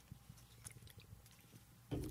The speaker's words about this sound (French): Je prends une gorgée